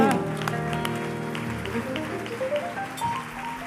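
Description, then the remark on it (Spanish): A crowd claps steadily throughout, a dense patter of many hands layered over sustained tonal music and voices, holding an even loudness without a clear start or finish. The applause is offered to the Lord after a message that the Lord has risen. “Otro aplauso al Señor”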